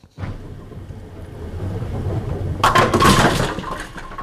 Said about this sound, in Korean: 아, 볼링 치시는 분들 흥분되시겠다. 예, 볼링 스페어 소리죠.